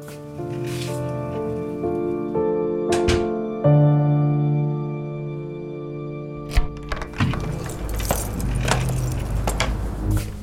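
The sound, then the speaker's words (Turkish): A small key jangles and scrapes as it turns in an old door lock, with sharp metallic clicks and rattles over a steady low hum, fairly loud, with no voices. “Teoman elindeki küçük anahtarı kapıdaki eski kilidin içinde çevirirken o sinir bozucu sükunetini hala koruyordu”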